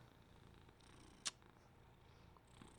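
A cat named Tara Jr. Jr. purrs steadily, a soft continuous low rumble throughout, with one brief sharp click partway through and no voices.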